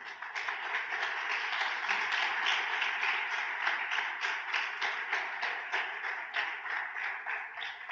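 audience applauding

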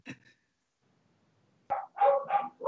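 dogs barking excitedly

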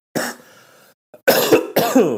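cough

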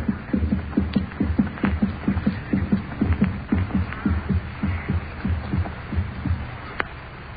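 heartbeat sound effect

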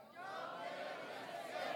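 audience shouting together

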